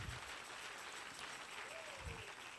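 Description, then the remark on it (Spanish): An audience applauds the Lord steadily, a dense, continuous wash of many hands clapping at an even loudness from start to finish, with a faint voice briefly rising beneath it. “Si le va a dar ese aplauso al Señor, déselo bien.”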